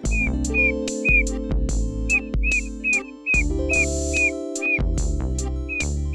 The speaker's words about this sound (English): The call of the Darwin frog is a high pitched peep.